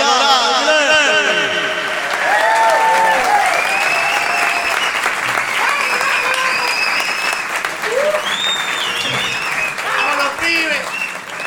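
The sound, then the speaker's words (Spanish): Sustained audience applause welcoming a trumpet player, with dense clapping throughout, joined by scattered whistles and cheers rising over the crowd noise; loud and steady for the whole stretch. “señores, pueden prolongar su aplauso para recibir a la trompeta vamos”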